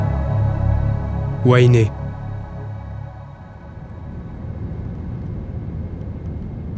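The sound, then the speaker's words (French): An airplane's engines during takeoff: a steady, loud engine drone fills the cabin, broken early by a brief high whine that sweeps upward, then settles into a rough, roaring rumble as the plane accelerates. “Au décollage, il était resté focalisé sur le bruit du moteur, abattu par un sifflement discontinu, un ultrason à peine audible dans la valse mécanique de l'engin.”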